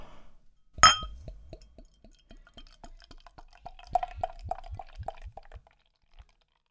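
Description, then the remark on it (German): Beer is poured into a glass for a tasting, after a sharp glassy clink, with a steady run of gurgling glugs that gradually quicken and then stop. No one speaks. “Gut, ich würde sagen, schreiten wir zur Tat, kommen wir zur Verkostung dieses Biers.”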